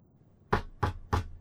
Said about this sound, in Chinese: 我听到了敲门的声音，随后，按摩房的门推开了一点。